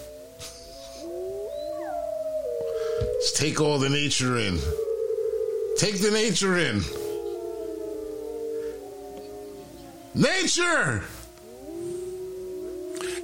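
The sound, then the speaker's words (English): Four wolves howl together at the moon in long, overlapping wavering tones that rise and fall steadily throughout, while a man's voice speaks over them in short bursts. “But there is four wolves, four distinct wolves howling at the moon.”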